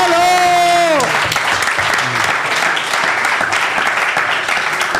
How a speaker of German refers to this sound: Erstmal hier Applaus